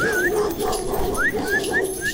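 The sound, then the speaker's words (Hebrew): A dog whimpers and yelps during a walk with the dog, giving about five short, rising whines in quick succession over a steady background hum, with no one speaking. “יש טיול עם הכלב.”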